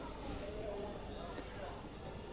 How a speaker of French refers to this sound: Vous avez entendu l'ambiance de la rue.